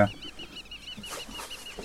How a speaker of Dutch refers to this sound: Twee alarmerende kievieten die vliegen hoog op.